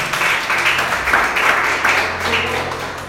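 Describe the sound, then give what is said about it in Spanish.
An audience bursts into steady, sustained applause for the Lord, many hands clapping together in a dense, even wash of sound that holds strong for the whole moment without any voices. “Alguien tiene que darle un aplauso al Señor por eso.”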